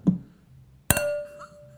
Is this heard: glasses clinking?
yes